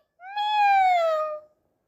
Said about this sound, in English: meow, purred the sleepy cat.